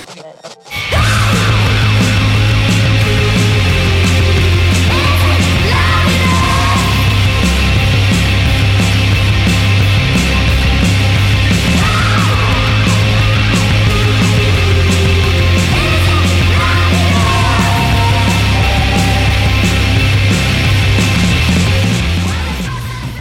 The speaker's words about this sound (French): un truc super violent où vraiment ils ont allumé tous les potards à fond, ils font saturer les guitares, la, chanson, la chanteuse se met à gueuler comme c'est pas possible, et ça défonce.